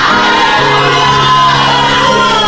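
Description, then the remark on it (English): A large crowd shouts and cheers together in a loud, sustained roar, many voices whooping and yelling at once without a break for a couple of seconds, making a noise to the Lord in response to a preacher. “If you believe God is there, lift up your voice and give the Lord a noise.”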